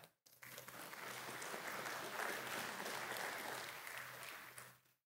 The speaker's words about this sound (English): Modern day, yeah, you can clap for that.